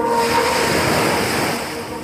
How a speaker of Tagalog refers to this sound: Umihip ang napakalakas na hangin na siyang nagdulot ng lakas ng alon.